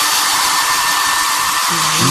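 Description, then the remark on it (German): A hair dryer blows steadily and loudly for the whole moment as a person's hair is blow-dried, a constant airy roar with a faint voice murmuring underneath near the end. “Es ist, niemand, ist niemand zu verstehen, wenn dieser Föhn an ist.”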